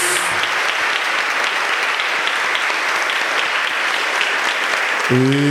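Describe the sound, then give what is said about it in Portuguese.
An audience claps steadily to applaud the word of God after a Gospel reading at a church service, a dense, even wash of applause holding at the same loudness throughout, with a brief voiced tone rising at the very end. “Vamos aplaudir a palavra de Deus, meus queridos.”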